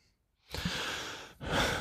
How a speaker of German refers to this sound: Ähm, Schweres Atmen.